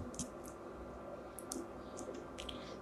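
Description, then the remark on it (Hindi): A few soft, sharp computer mouse clicks, spaced irregularly against a quiet background hum, faint, with no voices, as someone updates a post and clicks Preview. “अभी यहाँ पे अपडेट करते हैं और देखते हैं कि कुछ होता है या नहीं अपन चलते हैं यहाँ पे हम्म, और इसे प्रीव्यू पे क्लिक करते हैं”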